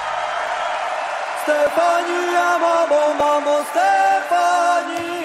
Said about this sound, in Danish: da de skulle på Ukraines bud på en Eurovision-vinder, så blev de hyldet med stående klapsalver.